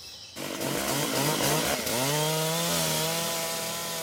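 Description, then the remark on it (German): A loggers' chainsaw cutting rainforest trees roars at high revs, its engine pitch bogging and dropping as it bites into wood, then steadying into a continuous loud whine. No voices. “Im September 2022 stellten die Holzfäller einen neuen Rekord auf. Sie vernichteten so viel Regenwald wie noch nie zuvor.”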